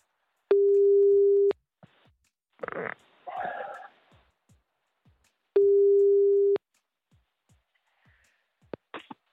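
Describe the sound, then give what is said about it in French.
Ringing tone of an outgoing phone call made on a colleague's borrowed phone: two long, steady mid-pitched tones, each about a second, separated by a pause filled with faint muffled rustling and brief murmurs. “Allez hop là, c'est parti, on y va, on appelle.”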